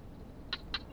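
A barking gecko gives two quick, sharp clicking chirps in close succession, fairly faint, over a steady low rumble of wind.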